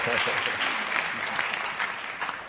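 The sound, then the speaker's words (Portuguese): An audience bursts into sustained applause, a dense steady patter of many hands clapping at even loudness, with a voice faintly audible under it near the start. “Aplauda.”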